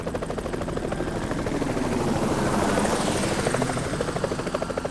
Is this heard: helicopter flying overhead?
yes